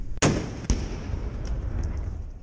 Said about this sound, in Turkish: Donbas bölgesinde de sıkışıyor Rus askerleri. Sığındıkları bir binayı Ukrayna ordusu top atışlarıyla vurdu.